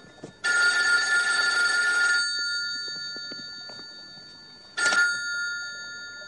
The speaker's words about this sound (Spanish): En su casa llena de policías suena el teléfono, Darryl lo coge.